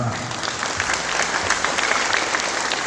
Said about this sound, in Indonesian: Terima kasih Pak sudah hadir. Tepuk tangan.